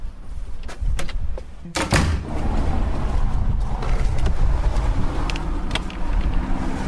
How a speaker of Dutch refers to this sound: De deur zit in het slot, de auto's rijden voorbij.